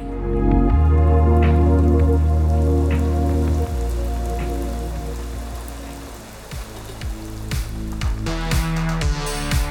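Steady rain patters on a hard surface throughout, layered over sustained low, droning tones, with a few sharper drips or knocks standing out near the end. No one speaks.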